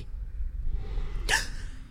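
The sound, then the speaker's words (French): A low, steady rumble builds into one sudden loud, breathy snort, an exaggerated, unusual snore that cuts off quickly and fades back into the rumbling drone. “Mais son ronflement n'est pas un ronflement habituel. On peut l'entendre d'ici.”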